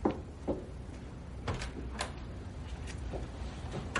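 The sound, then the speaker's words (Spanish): A door opens and shuts in the morning as a woman carrying a bag leaves, with a scattered series of short, quiet clicks and dull thumps from the latch and frame over a few seconds, and no voices. “Se dirige a la puerta y se detiene un instante mirando hacia la del salón que permanece cerrada.”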